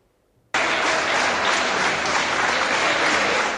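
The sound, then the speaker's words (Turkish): In a corridor of Başakşehir Çam and Sakura City Hospital, after a moment of near silence, nearly a hundred health workers abruptly break into loud, dense clapping in protest over extra payments, continuing steadily without letting up; no voices are heard over it. “Hastane koridorundaki bu eylemin sebebi ek ödemeler.”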